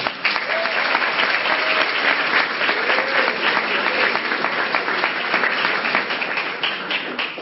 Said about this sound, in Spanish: Un aplauso para ellos.